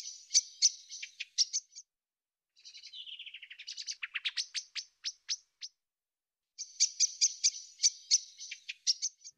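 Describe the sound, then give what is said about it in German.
A blackbird sings clear and alone: bursts of rapid high twittering, a short pause, then a sliding phrase into a run of sharp separate notes before the twittering returns. “Und sehr begabt, das kann man auch selbst beobachten, sind die Amseln. Die üben ja immer abends”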